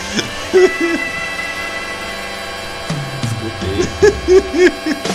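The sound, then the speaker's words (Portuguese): A short jingle drenched in odd, heavy reverb: warbling, hoot-like sung tones rise and fall in bursts over a steady droning bed, the words smeared and unintelligible. “Tu pôs um reverb muito estranho.”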